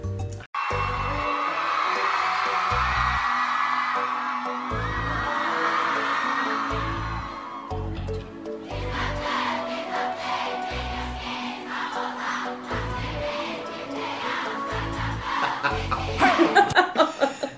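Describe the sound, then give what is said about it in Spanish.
A short intro jingle plays on its own: a steady, punchy bass beat thumping about once a second beneath bright, busy layered music, swelling louder toward the end. “Primero voy a poner la cortina.”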